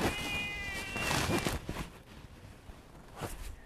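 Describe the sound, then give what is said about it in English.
A cat lets out one long, drawn-out meow, followed by quieter scuffing and rustling noises outdoors, with no talking. “So, uh, by the way, if you hear me out, it's a cat.”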